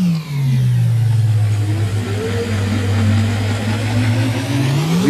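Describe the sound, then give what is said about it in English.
A loud, continuous time-machine warping sound effect played from a sound machine: a deep, engine-like drone slides down in pitch, holds steady, then bends back up at the end, with a rushing, shimmering texture above it. “Okay, so just FYI, we yeah, have sound machine. I love it. Warping sounds and all.”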